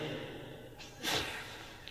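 A single sneeze during a lecture on hadith: one sharp, breathy burst of noise, loudest in its hissing upper range, rising briefly above a low steady background hum before fading away.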